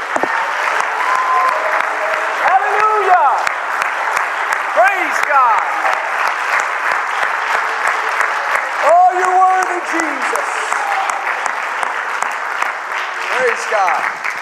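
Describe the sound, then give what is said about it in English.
A church audience at a Wednesday night service claps to Jesus steadily and loudly for the whole stretch, a dense, continuous wash of many hands, with voices calling out and cheering now and then over the applause. “Would you put your hands together and clap to Jesus right now?”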